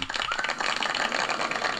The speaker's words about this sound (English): Round of applause to them.